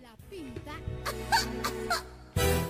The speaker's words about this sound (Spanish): La tos.